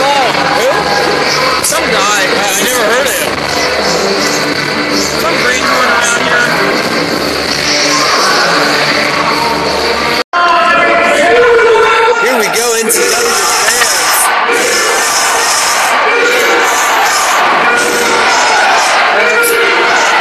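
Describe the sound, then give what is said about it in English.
A capacity crowd at NTW boos wrestler Ben Hammond loudly and continuously, a dense wall of jeering voices that briefly cuts out midway before surging back at full volume. “capacity crowd here at NTW, letting Ben Hammond know that they don't like him and they've just met him.”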